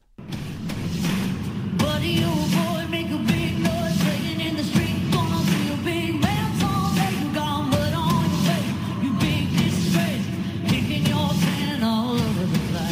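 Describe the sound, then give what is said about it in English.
Loud live rock music plays steadily throughout, with a sung lead vocal over dense guitars and drums and a wash of crowd noise blended into the mix, at a concert for an audience of frontline workers after the Final Four game between Baylor and Houston. “a concert held for an audience of frontline workers after the Baylor Houston game.”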